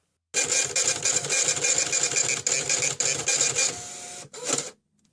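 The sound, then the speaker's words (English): A printer runs steadily for about four seconds with a dense, rapid mechanical chatter and whir, then slows, pauses briefly, gives a final short burst and stops. “Let's check the printout.”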